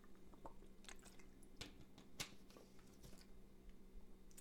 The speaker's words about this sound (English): But I'm gonna take a quick water break too going good over 15 minutes.